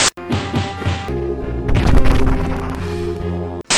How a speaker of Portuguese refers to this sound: Cara, esse jogo ele merece um prêmio pelo melhor som de porrada num beat'em up de todos os tempos.